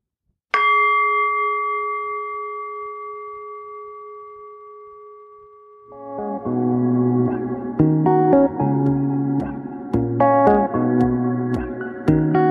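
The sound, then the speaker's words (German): A mindfulness meditation gong is struck once and rings out, its clear sustained tones slowly fading for several seconds before soft, layered ambient music rises and carries on to the end. “Schließe kurz die Augen und nimm auf den Gong ein paar achtsame Atemzüge mit mir.”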